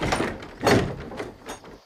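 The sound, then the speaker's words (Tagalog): A house door slides and thuds shut, followed by a couple of short knocking clatters like a latch or bolt being worked as the door is hurriedly locked, with no talking. “Para kaming mga magnanakaw, ang bilis naming isinasara yung mga bintana pagkatapos ay pinandalakan na rin namin ang pinto.”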